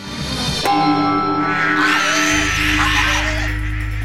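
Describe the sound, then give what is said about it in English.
A loud metallic clang as two golden bells on a long cord are swung so they knock together, then their bright ringing tones hang on for several seconds while a low rumble swells underneath. “She swung the cord so the bells knocked together.”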